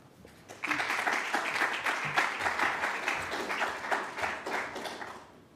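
An audience breaks into applause after a brief quiet start, a dense, steady patter of many hands clapping that holds at a fairly even level and tapers slightly toward the end.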